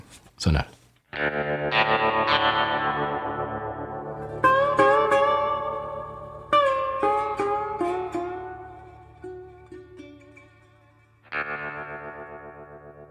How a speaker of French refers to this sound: On écoute le sonal du Conseil des voyages